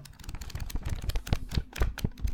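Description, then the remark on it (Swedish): Book pages being flipped, a quick irregular run of crisp papery rustles and soft slaps, with no one speaking. “Nu bläddrar jag i en bok.”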